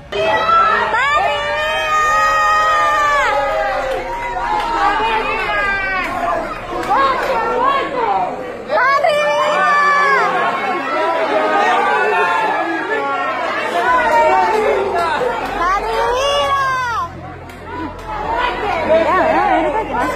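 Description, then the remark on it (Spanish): A large crowd shouts and chants "Patria y vida" together on a Monday night after the stadium, many voices overlapping loudly and continuously, with rising and falling cries throughout, energetic like a rally. “que gritan patria y vida, ponlo Sandy en esa parte”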